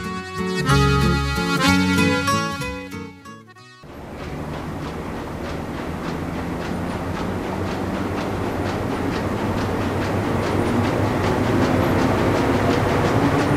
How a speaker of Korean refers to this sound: 경기도 파주의 한 인쇄소. 인쇄기 돌아가는 소리로 가득한 이곳에서 갓 나온 교정지를 꼼꼼하게 살펴보는 한 사람.